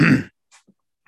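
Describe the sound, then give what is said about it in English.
A pet cat sneezes once, a sharp burst lasting only a moment, followed by near silence broken by a few faint little snuffles and clicks. “You are sneezing.”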